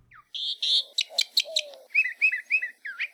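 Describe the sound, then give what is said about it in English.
A northern mockingbird sings a rapid medley: a sustained whistle, a burst of sharp clicking notes, then repeated warbled phrases, clear with no other sounds. “you can still find a few northern mockingbirds in the islands.”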